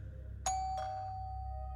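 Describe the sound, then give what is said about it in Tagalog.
A newly bought two-tone electronic doorbell chime suddenly rings once, a bright first note followed by a lower second tone that lingers and slowly fades over a low background hum. “Subalit na hintakutan kami nang bigla na lamang tumunog ang doorbell, Sir Jupiter.”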